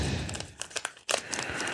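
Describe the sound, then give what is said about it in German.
Paper packaging inside a headphone box rustles and crinkles as it is pulled out during unboxing, with brief crackly bursts and a short pause midway, steady handling noise throughout. “Da ist auch Papier. Ziehen wir mal da rum.”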